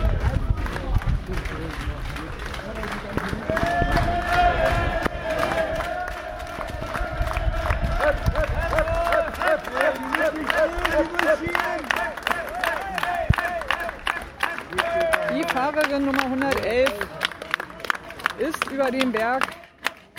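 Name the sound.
crowd applauding and cheering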